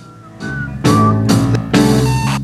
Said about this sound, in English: And the whistling goes. Now listen, goes, goes. That's nice, fellas.